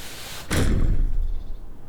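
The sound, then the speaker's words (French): A single heavy blow of a fist pounding on a Paris apartment door, loud, followed by a low booming rumble that slowly fades. No voices are heard. “Soudain, on tambourine à la porte de son appartement parisien.”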